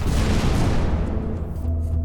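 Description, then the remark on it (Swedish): A powerful bomb blast at Stockholm's Stadion on 7 August 1997, heard several kilometres away and sending bricks flying onto Lidingövägen, roars as a sustained, heavy low rumble that fills the whole moment, its harsh upper crackle gradually dying away while the deep boom lingers. No voices. “Explosionen hörs flera kilometer bort och tegelstenar flyger ut på Lidingövägen.”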